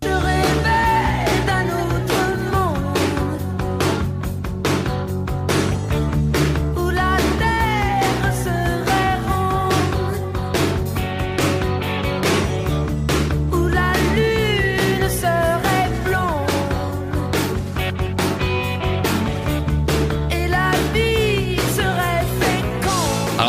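A rock song plays loud and steady throughout, with driving drums, thick electric guitars and a melodic vocal line rising and falling over the band.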